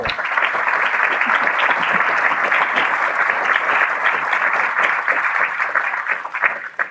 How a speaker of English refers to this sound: Well, excellent. I think that wraps it up now, but I want to thank everybody for joining us here on the uh, uh, panel. can everybody just give an applause to these great experts?